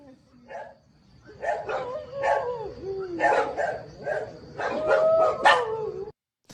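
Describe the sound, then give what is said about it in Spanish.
Agitated dogs bark and yelp excitedly in quick, overlapping bursts, some rising into whiny howls, loud for about six seconds before cutting off. “Y los perros se alebrestan luego, sí.”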